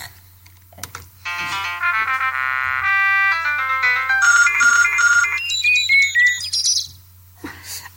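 A short electronic jingle of bright, bouncy synthesized tones built around a telephone-style ringing pattern, with chirpy rising and falling melodic runs, played alone over a faint steady hum.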